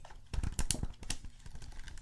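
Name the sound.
book pages being turned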